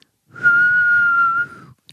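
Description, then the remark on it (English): A single sustained human whistle of disbelief holds one steady high pitch for about a second, loud, then tapers off, with faint breathy noise underneath and no speech. “That would be a whistle on my part.”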